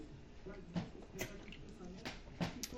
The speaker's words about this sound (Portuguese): Deixa eu tomar uma água aqui.